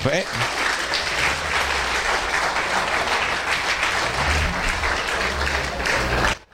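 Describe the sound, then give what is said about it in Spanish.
An audience applauding the Lord steadily, a dense wash of clapping hands that holds at an even loudness for several seconds, with indistinct voices mixed underneath, before cutting off abruptly. “Aplauda al Señor por lo muertos.”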